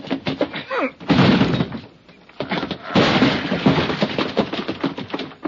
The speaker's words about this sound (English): Come on. Let's hit the door.